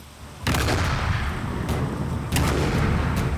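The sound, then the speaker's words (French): Heavy cannon fire from warships in a naval battle off a coast booms out in a loud, continuous barrage, with several sharp blasts rising over a dense, rumbling roar of gunfire and no voices. “Les premiers coups de canon retentissent, le bruit est assourdissant, l'odeur de la poudre omniprésente, l'air est saturé de l'attention des hommes.”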